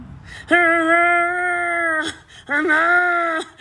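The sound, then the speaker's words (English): A pet cat lets out two long, drawn-out yowls, the first about a second and a half, the second shorter, each a loud, throaty moaning call with a brief pause between. “She kind of sounds like a Wookiee for like the first time ever.”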